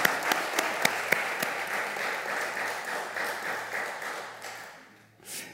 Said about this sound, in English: Can you say amen and give you good applause? Eh? Hallelujah!